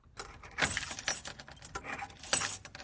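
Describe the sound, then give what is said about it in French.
Keys jingle and rattle as a shop door is double-locked, with two louder metallic clacks about two seconds apart amid the bright, tinkling clatter. No one speaks. “Papa a fermé la porte du magasin à double tour. Clac, clac.”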